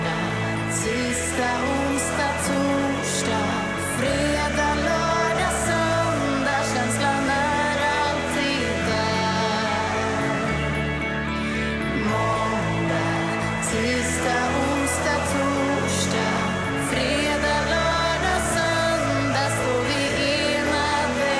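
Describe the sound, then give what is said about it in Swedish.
A catchy TV commercial song plays steadily and loudly for about twenty seconds, with a full band arrangement and a driving, regular beat and no one talking over it. “Jag då, jag kör faktiskt på en TV-reklam.”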